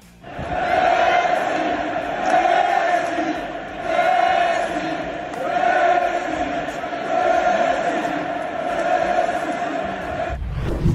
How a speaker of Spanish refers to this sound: En la semifinal de la Copa del Rey, en el Spotify Camp Nou, al minuto 10 todo el estadio a una sola voz gritó por Lionel Messi. Escuchemos.